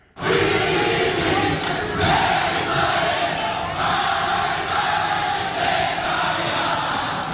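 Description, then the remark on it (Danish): A large crowd of Netanyahu fans chants loudly in unison, a dense, roaring mass of voices continuously repeating the rhythmic slogan "Bibi, Bibi, Melech Israel" (Bibi, king of Israel), with no breaks. “Ja, hvis man hører efter her, så kan man altså høre, at de synger Bibi, Bibi, Melech, Israel.”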